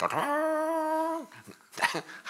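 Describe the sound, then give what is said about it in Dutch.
A shofar (ram's horn) is blown, sounding one loud, steady blast lasting about a second, rising sharply at the start and cutting off abruptly, followed by brief murmuring voices. “En die bruid hoorde, het was natuurlijk in een dorp, die bruid hoorde de sofar,”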